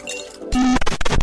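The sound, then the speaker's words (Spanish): A gin and tonic, made with gin, ice, Quina Canada Dry tonic water and a few drops of lemon, is poured into a glass, a soft fizzy hiss swelling into a fuller splash, followed by a few quick clinks of ice against the glass. “Ginebra, hielo, agua tónica y unas gotas de limón son los elementos primordiales para preparar el gin tonic, un icono de la coctelería clásica.”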